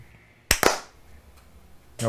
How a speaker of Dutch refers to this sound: Ja, gaan we klappen? 3, 2, 1.